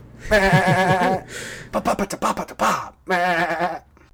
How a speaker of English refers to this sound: Yeah, but that darn horn from the trailer is now in every single movie trailer. The wah. Could be a goat, man.